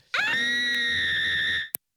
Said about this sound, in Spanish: Más grande todavía, más grande todavía que ese grito.